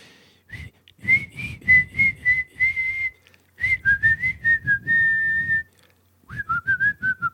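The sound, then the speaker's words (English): A person whistles a melody in three short phrases, the clear high notes sliding and held, with breathy, gusty noise of wind in the microphone underneath each phrase. “I can hear the wind, so it's not as effective. It's got to be clear, or maybe when I play it back, it won't sound like that.”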